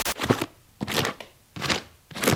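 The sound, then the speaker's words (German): A hand sweeping across rows of CD cases on a large CD shelf, making four quick rattling, clacking bursts at an even rhythm with brief pauses between them. No one speaks. “Das ist das Geräusch, das entsteht, wenn ich durch mein grosses CD-Regal fahre.”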